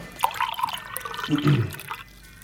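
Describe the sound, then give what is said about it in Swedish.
Water is poured into a container, a gurgling, splashing fill that rises in pitch over about two seconds before tapering off; fairly loud, with no one speaking. “Och så, jag fyller och, på och, lite vatten.”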